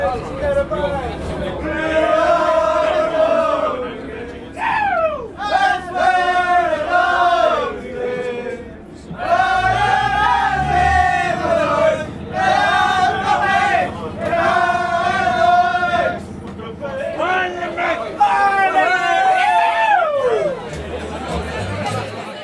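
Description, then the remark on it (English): A packed crowd of hundreds of Limerick supporters fills Colbert station in Limerick at midday on Sunday, June 19th, waiting to board the train to Thurles. Loud, continuous noise, voices chanting and singing together in repeated swelling bursts over a steady babble of chatter. “At midday on Sunday, June 19th, the city's Colbert station had hundreds of people squeezed inside as they waited to board the train to Thurles.”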